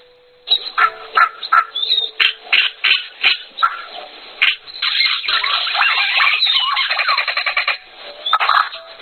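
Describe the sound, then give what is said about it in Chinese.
A flock of cacique birds calling, starting with a rhythmic series of short, bright squawks and whistles, then swelling into a dense, continuous chatter of overlapping varied calls, with a few more bursts at the end. “听一下卡西克鸟的声音。”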